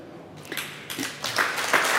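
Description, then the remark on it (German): Audience applause starting up, a thin patter of claps quickly thickening into a steady, dense wash of clapping that grows a little louder toward the end, with no voices. “Applaus für Sie.”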